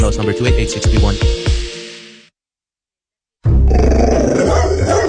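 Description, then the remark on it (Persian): A two-year-old pit bull dog growls in low, rumbling pulses for about two seconds, loud. After a short silence, a noisier, rougher burst of snarling sound returns. “سگتون چیه؟ پیت بول چند سالشونه؟ دو سالشه ولی مشالله مثل پنج ساله هست خوش اخلاقه بد اخلاقه”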